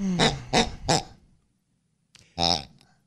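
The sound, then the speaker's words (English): A pink pig toy oinks three times in quick succession, then after a short pause gives one more nasal, honking oink, fairly loud with no talking. “did you think to yourself, you know, I can't wait till I'm on the radio someday asking, give me the pink pig.”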